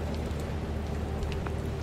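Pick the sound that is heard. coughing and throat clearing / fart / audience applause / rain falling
rain falling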